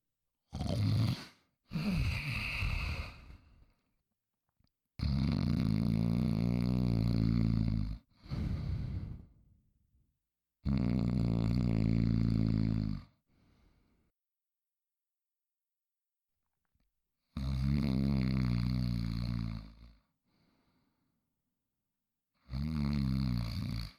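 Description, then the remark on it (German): Voices loudly imitate snoring like a king in a series of long, rumbling snores, several in a row separated by brief pauses, forceful with a rough, raspy texture. “Jetzt lass uns mal schnarchen wie ein König.”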